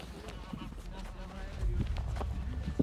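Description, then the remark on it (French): Irregular, heavy hoof thuds and scuffs of a young horse shuffling on the ground as four men around it try to hobble its legs and bring it down after a vet gives it an anaesthetic, growing louder and more agitated midway, with muffled voices in the background. “Quatre hommes sont autour du cheval et essayent de le mener à terre.”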